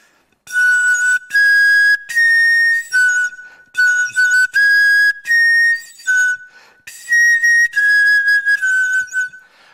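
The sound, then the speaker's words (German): A replica bone flute, modeled on a reindeer shinbone and made by archaeotechnician Wulf Hein, plays a slow melody of breathy, high whistling tones, each note held briefly with short pauses between, stepping up and down in pitch, with no talking. “Die ist nachgebildet aus einem Rentier, Schienbein.”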